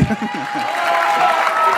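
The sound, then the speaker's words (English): An audience at a UX Australia conference breaks into steady, dense applause for the speaker of the next talk, a loud wash of many hands clapping that holds throughout, with a voice briefly audible at the start. “Oh, it's a big clap.”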